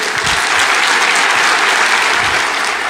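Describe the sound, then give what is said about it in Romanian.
Loud, sustained applause from a large crowd after a political speech in Romania, a dense steady wash of clapping that fills the whole three seconds without any break or voice rising above it. “are și aplauzele de partea, de partea”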